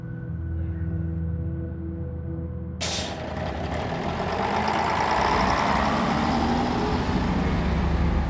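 Steady low engine rumble inside a bus in Stavanger city centre, then a sudden loud hiss of air brakes releasing at about three seconds, leaving a broad noisy drone that continues to the end.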